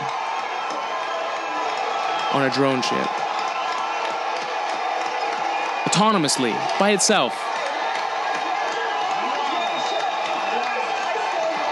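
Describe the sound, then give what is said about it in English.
A large crowd roars and cheers continuously, with loud rising whoops and shouts bursting out above the din, while a voice speaks over the commotion, as a SpaceX rocket lands on the drone ship Of Course I Love You in the middle of the ocean on April 8. “People are going insane.”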